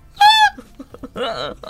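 Two short, loud burps, likely voiced imitations: a high-pitched tonal one first, then a lower, rougher one about a second later, with small clicking sounds in the gap.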